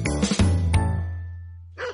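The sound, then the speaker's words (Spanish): A few sharp dog barks close together, ringing out over a sustained musical tone that slowly fades, followed by one more short bark near the end. “Tu perro se merece un buen aliado.”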